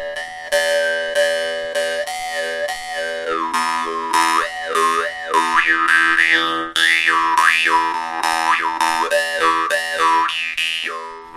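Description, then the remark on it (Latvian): A jaw harp twangs on one steady low pitch, its bright overtones sweeping up and down in a rhythmic wah-wah pattern. It plays loud and continuously for about eleven seconds, with no voices. “Un nu, vēl vārgāns arī pats taisa.”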